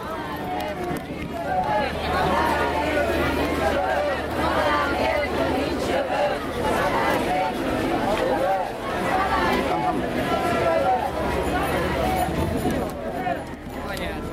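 A large crowd marches steadily across the Szabadság híd (Liberty Bridge), the crowd stretching back to Kálvin tér, a dense rumble of footsteps mixed with overlapping chatter and murmuring voices, loud and continuous throughout with no single voice standing out.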